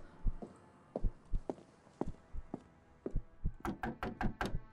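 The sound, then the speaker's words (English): Loud knocking on a wooden door, a steady series of solid thuds that quickens and grows sharper toward the end, with no voices. “Whence is that knocking?”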